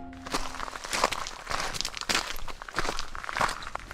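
Footsteps walk at a steady pace, each step a crisp crunch, with no voices, as a goldsmith sets off for another village.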